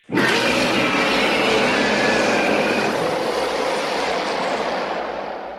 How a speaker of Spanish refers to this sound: Una bestia gritando en algún lugar.